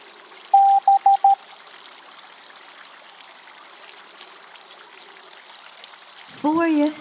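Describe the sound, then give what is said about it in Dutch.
Soft, steady water from a fountain on a town square trickles and splashes throughout. A quick series of four electronic beeps sounds near the start, and a brief voice rises over the water at the very end. “zie je de fontein.”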